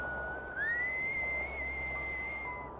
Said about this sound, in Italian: Fischi che sembravano provenire da qualche parte lì vicino alla strada.